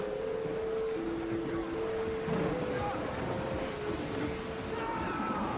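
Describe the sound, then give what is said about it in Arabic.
A rough sea in a strong storm roars without pause, wind and crashing water blending into a dense wash, with a low whistling drone running underneath and no voices. “بعد جمعة ولا جمعة ونص وهما في البحر تجي عاصفة قوية برشا”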